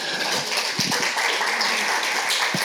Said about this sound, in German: Okay, sehr schön. Äh, macht mal, gib mal einen Applaus.